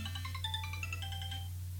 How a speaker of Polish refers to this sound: Teraz zadzwonimy sobie na Sony Ericssona Xperia Pro. To jest chwilowo Nokia E6 z Mobile Speakiem i dzwonimy na... Nam zaraz tutaj będzie dzwonić telefon. Hit ten słyszymy.